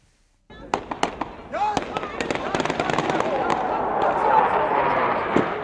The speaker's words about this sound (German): Panzer, die über die Bosporusbrücke rollen, Schüsse, die auf demonstrierende Menschen hageln.